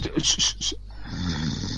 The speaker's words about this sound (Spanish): Hijo puta está roncando el cabrón.